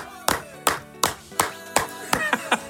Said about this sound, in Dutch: Ik klap ervoor voor die laatste woorden. We klappen voor Willy. Voor Willy, zo is dat.